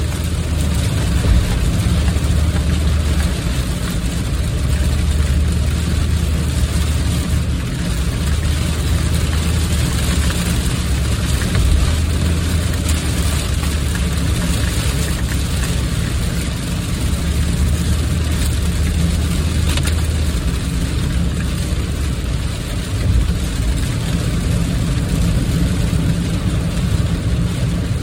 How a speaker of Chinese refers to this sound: 你听那个啊，那个就是地上积水，车子碾过积水的声音。